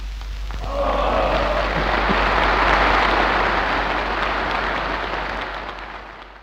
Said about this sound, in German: ja, dieser zweite Abschnitt hier, gerade so dieses Jubeln und dieses Jawoll reinschreien, ne, das zeigt wirklich nochmal sehr deutlich diese ganze Propaganda, die das am Ende ja auch ist.